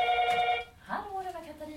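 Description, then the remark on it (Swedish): A telephone rings with a steady, bright electronic tone for about half a second, a call from the reception, then cuts off as a voice begins speaking. “nu ringer det.”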